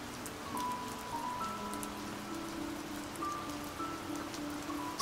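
Steady rain pours down continuously, a dense hiss with scattered drops pattering, while faint sustained tones hum softly underneath. No one speaks.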